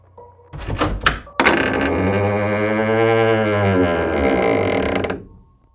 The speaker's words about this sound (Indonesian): Dan ketika pintu itu sudah terbuka, di depannya sudah berdiri pocong Pak Tarno dengan wajah yang gak utuh dan berlumuran darah menatap tajam ke arah Pak Amin.